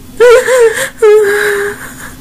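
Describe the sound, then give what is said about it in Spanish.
Two wavering whimpers in quick succession, a blonde young woman sitting on a lawn sobbing uncontrollably with a trembling, quivering pitch and no words, the second cry drawn out a little longer than the first. “No lo sé, dijo apenas mientras un llanto incontrolable se iniciaba.”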